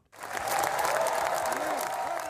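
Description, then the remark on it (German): Sustained, dense applause and standing ovation from a large crowd at the 76th Cannes Film Festival, lasting seven minutes, for Johnny Depp and the opening film Jeanne du Barry. A steady wash of many hands clapping at full loudness after a sudden start, with faint voices and cheers mixed underneath. “Sieben Minuten Applaus und Standing Ovations für Johnny Depp und den Eröffnungsfilm Jeanne du Barry.”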